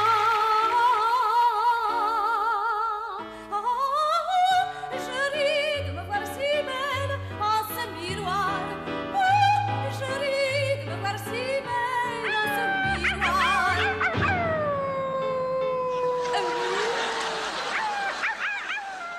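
An exaggerated operatic soprano, the caricatured singer Bianca Castafiore from the cartoon The Adventures of Tintin, sings with heavy, wobbling vibrato over busy orchestral accompaniment, ending in dramatic sliding high notes and a shrill final flourish, loud throughout.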